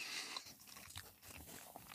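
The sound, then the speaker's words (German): Chewing of crusty wheat sourdough bread, with repeated crunchy bites and moist mastication in a steady, irregular rhythm, loud, with no talking. “ich muss jetzt mal runterschlucken. Es äh, ist, äh, es ist ein Weizen-Sauerteigbrot”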